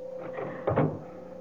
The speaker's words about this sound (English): Close that door up. Shut it.